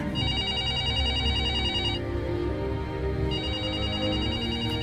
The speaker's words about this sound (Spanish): Sin embargo, ahora, cada vez que suena el teléfono, pienso que voy a atender y escuchar la voz de